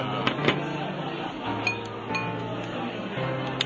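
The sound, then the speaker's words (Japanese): Dishes and glasses of food are set down on a table as the food arrives at a drinking spot in Akihabara, Tokyo, giving a handful of light clinks and taps scattered over a few seconds against steady restaurant background noise. “ちょっとすいません料理が来ました。”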